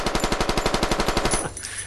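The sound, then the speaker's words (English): A rapid burst of automatic gunfire, about fifteen sharp shots in a steady fast rhythm, loud throughout, then a brief ringing tail as it stops. No one speaks. “Isn't that worth a two gun salute?”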